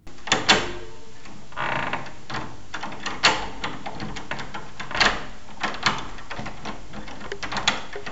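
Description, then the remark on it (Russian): Metallic clicks, scrapes and clunks of a key turning in an old 19th-century door lock, a series of mechanical clacks over several seconds with a faint hum beneath, no talking. “зато послушайте, как поворачивается ключ в старинном замке XIX века.”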